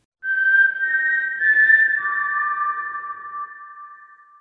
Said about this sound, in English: Play that Hunger Games whistle.